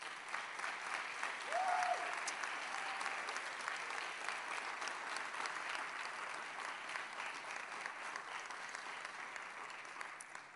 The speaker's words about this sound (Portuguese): E eu queria mais uma vez que você celebrasse o Senhor com as palmas.